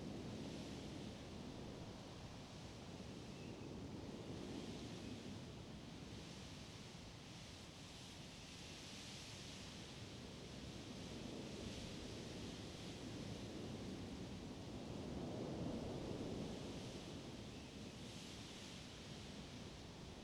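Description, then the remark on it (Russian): Steady rushing wind with a surf-like roar fills the whole stretch, swelling slowly in waves and peaking briefly near the end, with no voices present. “Теперь ветер становится сильнее. Ты слышишь его, как шум прибоя позади тебя.”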